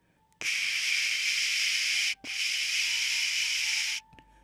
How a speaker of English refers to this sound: A strange noise was coming from the living room. When he re entered the cabin, he noticed that the television was displaying a white static that cast an eerie glow on the living room furniture.